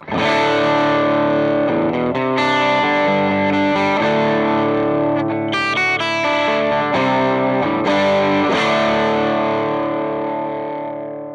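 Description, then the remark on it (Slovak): An electric guitar run through a boutique overdrive pedal, originally made in only 8000 units, plays a few sustained, gritty chords that ring into one another, loud for about eleven seconds with no voices. “Ale samozrejme má aj veľmi kvalitný zvuk, inak by nebol tak populárny. Tak to znie.”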